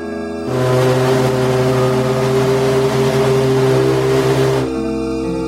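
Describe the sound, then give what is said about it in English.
The engines of the 25,000-ton ocean liner Maurevania, preparing to sail for Europe from New York City's West 22nd Street Pier in mid-October: a deep, steady drone with strong low harmonic hum swells in and holds loudly for several seconds, then drops back to a quieter rumble. “Welcome on board to the great 25,000 ton ocean liner, the Maurevania, preparing to set sail to Europe from New York City's West 22nd Street Pier.”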